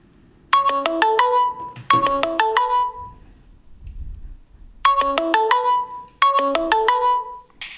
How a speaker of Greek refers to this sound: θυμάστε αυτόν τον ήχο. Ναι. Το Google Hangout είναι αυτό. Τι είναι αυτό, το Hangout. Ε, το Hangout ε, το οποίο μαζί με το Google Plus ε, μας άφησαν νωρί.